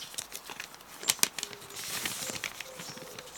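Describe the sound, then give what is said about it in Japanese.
Paper crinkles and tears in short bursts, with two sharp rips near the middle, as an envelope holding a letter is torn open. No one speaks. “私はその場で封筒を開けた”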